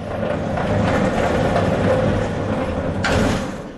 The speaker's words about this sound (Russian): Это громыхает, это там, сначала решетку, он эту цепочку ограничивающую снимает, ну, цепочку, которая не позволяет на, на распашку открыть дверь.